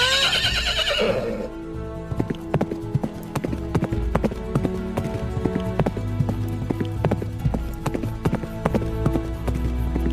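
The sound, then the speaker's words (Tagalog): A horse gives a loud, shrill whinny, then its hooves clip-clop in a steady, brisk rhythm, continuing for several seconds with no talking. “Sasakay tayo sa aking kabayo.”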